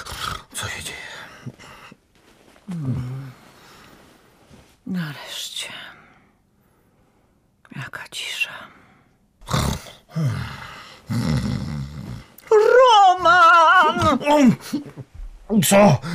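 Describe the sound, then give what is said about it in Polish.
A man snores loudly at night in several irregular, rasping bursts, with a voice groaning and speaking between them. “Nic, chrapiesz.”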